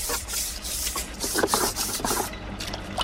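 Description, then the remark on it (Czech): Repeated rasping strokes of a brush with a little water scrub across wet sediment cores, cylinders a few centimetres wide, to bring out their structures: a steady series of broad, hissy swishes at a moderate level with no talking. “Na jejich očištění je potřeba kartáč a trocha vody. Můžeme tady takhle očistit, krásně vyleze ty struktury.”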